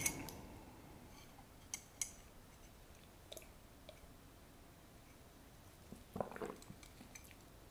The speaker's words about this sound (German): Nehmen wir mal noch einen Schluck Kaffee.